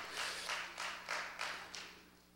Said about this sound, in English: Come on, give the Lord a hand clap about this morning.